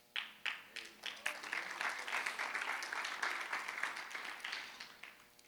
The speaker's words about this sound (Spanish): La que está aplaudiendo ahí es mi esposa, está orando por algunas consecuencias.